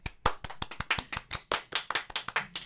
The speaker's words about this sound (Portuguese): Não, eu queria que você levantasse e me aplaudisse. O episódio foi lindo.